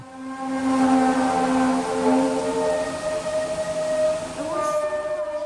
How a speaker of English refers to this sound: And then this person links to um, some uh, a video of this. I think it's up in Canada. Ultimately, the sound from this video was the noise of freight trains shunting, which is apparently slowing and changing direction.